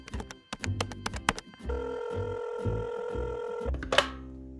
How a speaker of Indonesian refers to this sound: Boleh pakai handphone bapak ya? Pinjem boleh ya? Iya. Ya sudah. Sini tak tekanin nomor teleponnya.